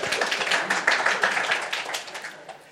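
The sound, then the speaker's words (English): A crowd applauds with dense, rapid clapping that holds steady for a couple of seconds and then gradually tapers off. No voices are heard over it. “Give that a big round of applause.”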